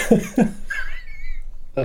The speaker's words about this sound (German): Entschuldigung, ich muss jetzt auch mal eine Runde husten.